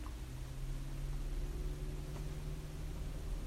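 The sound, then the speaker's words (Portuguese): A car's cooling fan, which has switched on although the car is not hot, runs steadily, giving a constant airy whoosh over a low electric hum that never changes in level, with no voices. “Ligou a ventoinha do meu carro, estranho.”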